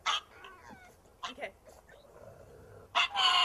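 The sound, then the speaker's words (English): A pug lets out a few short, yowling barks that sound oddly like the word 'Batman', coming in separate bursts with pauses between, fairly loud. “That's the pug that says Batman.”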